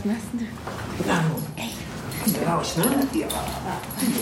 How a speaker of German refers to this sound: Vincenzos Hund Dante, ein kleiner weißer Zwergpudel, wird langsam unruhig.